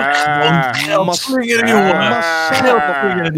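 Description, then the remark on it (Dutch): A person imitates a sheep, letting out a loud, wavering bleat for a few seconds with a shaky, quavering tone, without other talk. “Klaar en ook stonden te blaten.”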